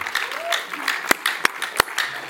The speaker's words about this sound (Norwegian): Jeg syns jeg skal gi deg en applaus.